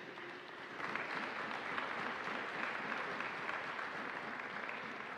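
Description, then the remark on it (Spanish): A crowd claps steadily for several seconds for the staff of Engirs, a solid waste management company, a dense, even wash of applause that starts quickly and holds at a fairly loud, constant level without pause. “Así que quiero, insisto, no soy de felicitar, sino hasta que tengamos objetivos consolidados, pero quiero que le brindemos un, un fuerte aplauso al personal de Engirs.”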